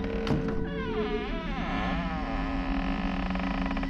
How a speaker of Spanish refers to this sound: Un espejo en la puerta. La puerta empieza a cerrar.